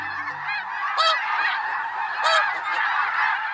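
A dense flock of snow geese honks continuously, a constant chorus of overlapping calls with a couple of louder honks standing out around the one- and two-second marks.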